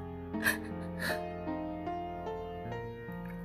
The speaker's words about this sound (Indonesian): Ulangku bersama napas yang tersengal-sengal di dadanya.